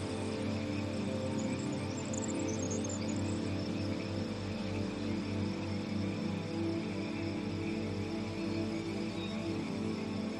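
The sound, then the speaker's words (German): A dense, steady chorus of leaf-green, smooth-skinned tree frogs croaking in a small sunlit wood, a continuous layered chirping that grows louder and fills the whole scene at moderate volume, with no voices present. “Das lustige Quaken wird immer lauter.”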